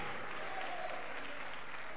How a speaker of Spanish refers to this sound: Dame un aplauso grande al Dios Todopoderoso, amén.